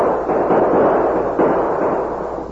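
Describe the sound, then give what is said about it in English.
A dense, continuous barrage of gunshots blurring into a loud, crackling roar for about two and a half seconds, with a slight surge midway and no voices. “Use your gun, Tonto.”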